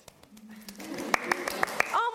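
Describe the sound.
A short burst of hand clapping, about five or six sharp, evenly spaced claps, fairly loud, over voices talking and laughing.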